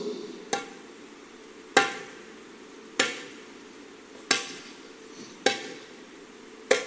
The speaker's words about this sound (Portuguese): de alguém batendo no chão. E quando ele abre os olhos dele, ele vê a multidão abrindo o caminho, e estava vindo um homem que só tinha a metade do corpo para cima.